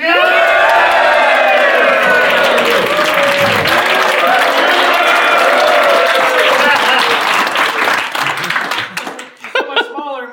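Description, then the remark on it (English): A large crowd in a San Francisco room holding 10,000 people applauds and cheers loudly at the opening of The Tablet Show, with dense clapping and rising whoops and shouts that hold steady for about nine seconds before tapering off into scattered claps. “What a big crowd.”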